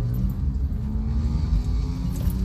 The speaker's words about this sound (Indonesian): Wih, orang depan gue mobil Ayla kenal pot sporty bro gila nanggung bos lu beli mobil mahalan dikit napa